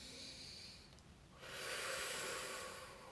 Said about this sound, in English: Or is that forced breath out?